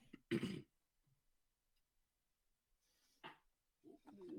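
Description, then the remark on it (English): A sharp throat clearing bursts out at the start as the speaker tries to hit a mute button at the same time, followed by quiet, then another shorter throat-clearing sound and faint rumbling noises near the end. “excuse me, trying to clear my throat here and trying to hit the mute button at the same time.”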